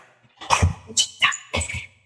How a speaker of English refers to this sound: Sorry, I've got a dog on my lap. Stand by. Get down. Get down.